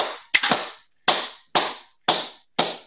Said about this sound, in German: auf drei klatsche ich an und dann moderiere ich an